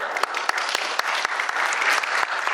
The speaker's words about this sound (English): Gentlemanly applause, please